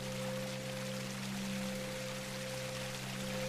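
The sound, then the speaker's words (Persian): A waterfall's steady rush of water fills the scene, a dense, unbroken roar that holds constant throughout, with a faint low droning tone running underneath. “به راه هم ادامه دادم تا اینکه صدای اون آبشار رو شنیدم”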